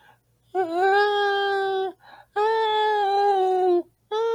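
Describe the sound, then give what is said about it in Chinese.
A voice imitates the loud, echoing crying heard in an auditorium, with two long, steady wails, each held for over a second before dropping off, and a third starting at the end. There is no other talk. “那个回音之大，那哭声大概是这样子。”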